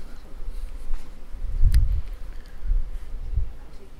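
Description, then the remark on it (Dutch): A dense, low buzzing of many honeybees around a hive as a beekeeper lifts out brood, a steady drone that swells louder in a few brief surges, with no voices over it. “Ja, je hoort ze hier ook zo. Dat is het gewone vertrouwde geluid wat je hier hoort.”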